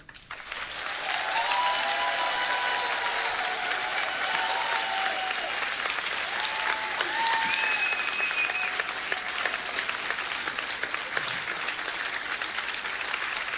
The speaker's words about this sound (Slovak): Ďakovať vám všetkým, ktorí ste tu v sále, v Trstenej, ďakovať takmer 40 našich spevákov a speváčok, hudobníkov a hudobníčok z celého Slovenska. Tak jeden potlesk pre nich.